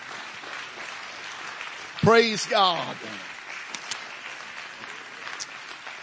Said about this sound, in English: And everybody said amen. Can you clap your hands to the Lord one more time?